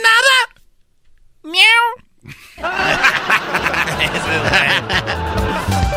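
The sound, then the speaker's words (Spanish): Two short, high meows, seemingly voiced by a person imitating a cat, separated by a brief pause, then a burst of loud laughter and noisy chatter fills the rest. “Miau.”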